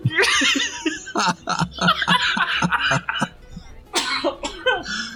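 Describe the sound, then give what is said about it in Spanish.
A loud, choking fit of coughing tangled with laughter: rapid, harsh bursts and wheezy giggles tumbling over one another, a short pause, then another sputtering round of coughs. “Te vas a ahogar por cabrón.”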